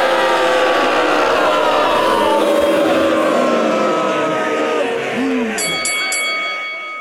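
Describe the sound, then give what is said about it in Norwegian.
A loud crowd cheers and applauds steadily with a dense roar of many voices, then a few bright chime-like tones ring out near the end as the noise begins to fade. “Gi en stor applaus til Bergens største sønn og den ultimate podkastvert”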